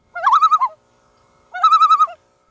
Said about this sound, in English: And this made the owl angry, and called out, Who? Who?